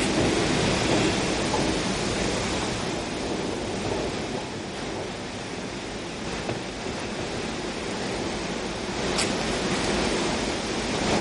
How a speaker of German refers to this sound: Nee. Das ist doch nicht nur Blätterrauschen. Doch, so. das ist Blätterrauschen und Astgewerfe. Prasselt doch.